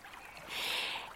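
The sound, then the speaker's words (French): Soft, steady rush of flowing river water at the bottom of a gorge, a continuous hiss that swells slightly midway, heard alone with no voices. “Arrivés en bas des gorges, et en attendant que les parents les rejoignent, les enfants étaient assis devant la rivière.”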